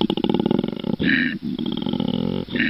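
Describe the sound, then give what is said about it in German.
A koala bellows with deep, low-frequency calls, a loud, rattling series of snore-like grunts and groaning exhales that pulse rhythmically, broken by brief pauses for breath, with no talking. “Ähm, ich habe mal was mitgebracht hier, das ist ein, ein Koala-Bär.”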